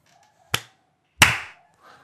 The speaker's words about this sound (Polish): klaszczemy.